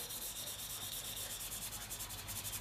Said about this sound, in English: But um, I, I rosin in small swipes, like in one spot, then I move up and do several swipes in another spot, then I move up, kind of in a just a scrubby motion